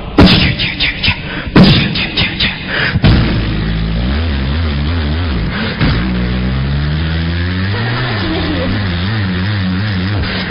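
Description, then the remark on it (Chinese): A man performs vocal mimicry of a motorcycle for an audience: a few sharp clicks and sputters as he mimes turning the ignition key, then a sustained low engine drone whose pitch rises and falls like revving and accelerating, fairly loud throughout. “一般你看我给你学点摩托车，我摩托车学拿手啊。”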